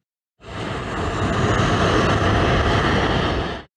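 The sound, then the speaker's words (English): A steady, loud roar of Boeing 747 jumbo jet engines, broad and rushing, rising in suddenly and holding for about three seconds before cutting off, with no voices. “The jumbo jet revolutionized air travel in the late 60s to meet demand for mass travel”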